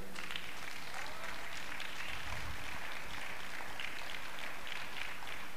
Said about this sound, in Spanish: ¿Alguien puede aplaudir al Señor todavía?